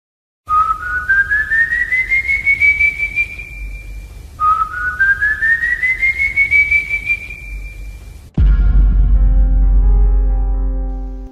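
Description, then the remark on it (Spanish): Two long, eerie human whistles, each sliding slowly upward and holding a high note, sound very close and clear to someone walking alone at night, followed by a sudden low, droning tone with ringing harmonics. “empiezas a escuchar silbidos muy cerca.”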